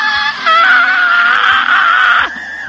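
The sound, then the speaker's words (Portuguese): A voice lets out one loud, sustained high-pitched scream imitating a panther, wavering slightly in pitch for about two seconds before cutting off abruptly, at the end of a song. “Quero você dando grita da Pantera que nem em 2016.”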